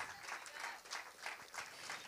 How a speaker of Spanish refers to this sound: ¿Por qué no se ponen de pie todas las mamás? Vamos a honrar a las madres en este día. Dale un fuerte aplauso a las Mamás que han dado a luz hijos, las honramos.